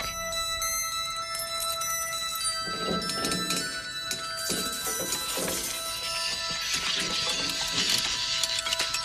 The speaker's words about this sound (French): Du métal qui s'entrechoque